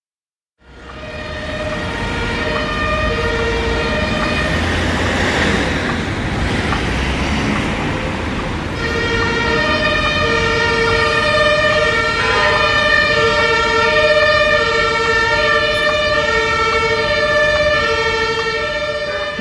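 Loud, continuous street noise at the corner of Wilhelmstraße and Dorotheenstraße in central Berlin, where traffic is almost always jammed: steady traffic rumble with a sustained, wailing siren-like tone layered on top, unbroken throughout. No one speaks.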